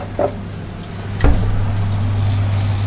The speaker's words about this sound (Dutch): Mooi is dat om boter in de pan te zien smelten. Met die bubbeltjes en dan dat hij steeds kleiner wordt.